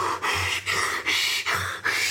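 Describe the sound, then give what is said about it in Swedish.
A voice imitates a frightened airplane passenger breathing into a paper bag: five or six quick, heavy, rasping breaths in a steady rhythm, loud with no talking. “Uh, och så tar han fram en påse som han så börjar andas i.”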